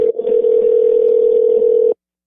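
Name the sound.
telephone dial tone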